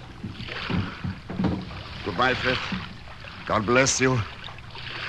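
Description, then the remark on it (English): A small sailboat glides down a swollen estuary with a steady wash of water and wind, while a couple of voices exchange brief farewells over the top. “I stood on the sea wall and watched the sail gliding down the swollen estuary.”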